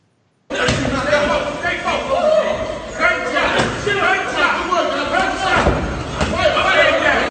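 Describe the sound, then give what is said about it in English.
Gunshots ring out as a string of dull, flat thuds at irregular intervals, muffled and slap-like rather than sharp, while people keep talking over them throughout. “Yo, why them shots sound like they fucking slamming the mat, like hitting the mat with their Bro, hands?”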